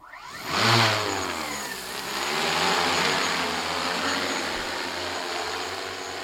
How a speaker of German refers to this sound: Innerhalb weniger Sekunden ist das Gerät in der Luft, das an einen weißen Kugelgrill erinnert, getragen von zwölf Rotorblättern. Eine Drohne, mit der eines Tages breitflächig Zeitungen zugestellt werden könnten.